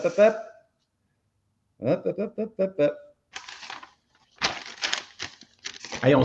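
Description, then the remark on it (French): Brief talking gives way to several loud bursts of papers rustling and crinkling, coming in irregular handfuls over the last few seconds. “que j'ai un, enfant de 3 ans qui fait son exposé oral avec ses papiers en avant.”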